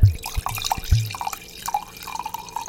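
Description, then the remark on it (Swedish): Liquid being poured into a glass, opening with a few quick glugs and drips, then settling into a softer, steady trickle. Nobody speaks. “trots att ni kanske tror att han hällde upp ett glas vin.”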